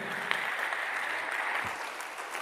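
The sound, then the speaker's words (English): A crowd at an evening sermon claps steadily, many hands blending into a dense, continuous wash of applause with a few sharper individual claps standing out. The sound holds at an even, moderate level throughout. “Come on, clap your hands tonight.”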